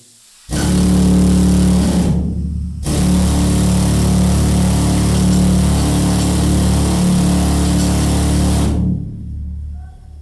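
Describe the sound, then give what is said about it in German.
A loud, harsh mechanical drilling roar from a pneumatic mining hammer drilling rock in a mine, set up to show how miners drilled, runs in two bursts, briefly cutting out after about two seconds, then pounding on steadily for six more seconds with a rough, buzzing hammering texture. “Wir haben jetzt hier äh, einen Abbauhammer eingerichtet, um eben den Leuten noch ein bisschen Feeling zu geben für die Mineure beim Bohren.”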